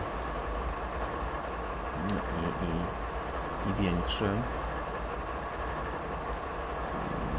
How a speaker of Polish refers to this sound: U nas nie ma takich dużych lokomotyw dieslowskich coś w sobie taką moc. Widać, że to jest taka właśnie e, niebywała siła tkwi gdzieś w tych, w tych maszynach. bardzo długie te pociągi, nieraz jakieś tam kilometrowe pewnie